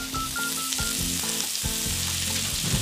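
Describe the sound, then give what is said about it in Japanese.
Maitake mushrooms sizzle steadily in a well-heated frying pan, brown outer side down, a continuous crackling hiss with a few soft bumps and scrapes as all the pieces, small ones included, are added. No one speaks. “しっかり熱したらじゃあここに舞茸を入れますねジューッと音がしますよねこうちょっと小さくこう小さくなっちゃったのももちろんあっても大丈夫ですあの全部余さずに入れてしまいましょう”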